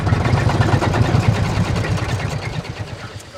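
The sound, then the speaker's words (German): A heavy diesel tractor engine chugs steadily, its low, rhythmic idle filling the whole stretch before easing slightly toward the end as the tractor reverses into a row in a parking area and comes to a stop. “Hat der Traktor die Fahrt gut überstanden?”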